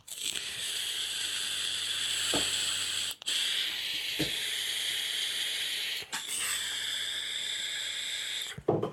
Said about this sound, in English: Pause. Pause for. Um, I need a sip of coffee and some some vape. One second.